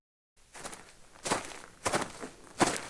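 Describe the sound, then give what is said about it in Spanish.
Steady footsteps crunch along at a walking pace, about five distinct steps over a few seconds, panned to the left, clear with no talking. “Como se dan cuenta, los pasos ahora están a la izquierda.”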